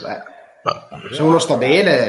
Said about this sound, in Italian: Hai ruttato?